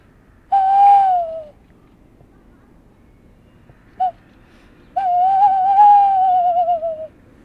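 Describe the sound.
A person whistles an imitation of a calm tawny owl call, low and slow with long whistles and pauses: a long steady tone, a brief soft blip, then a longer wavering whistle with slight tremble, close to the microphone with no talking.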